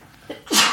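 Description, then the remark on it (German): A single sharp sneeze, preceded by a brief inhaled catch, then a loud, breathy burst. No talking around it. “Gesundheit, ey.”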